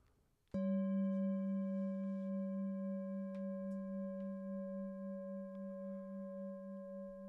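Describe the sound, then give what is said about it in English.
A single meditation bell is struck once, then rings on with a deep, steady hum that wavers gently and slowly fades over several seconds, with no voices. “Noticing the sound of the bell, announcing the movement in time of the present moment.”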